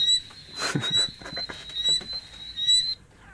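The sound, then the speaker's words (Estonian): Several different frogs calling one after another: a steady high-pitched trill runs throughout, overlaid with a series of quick rasping, clicking croaks at an irregular pace, moderately loud. “väga rahustav on konna hääl äh,. jaa, aga need on kõik erinevad konnad, ükshaaval järjest lähevad, osad kõla-, kõlavad nagu mingisugune Star Warsi mingisugune äh, jaa, või Alieni mingi hääl, kui ta krabistab vaikselt oma mingi küünistega”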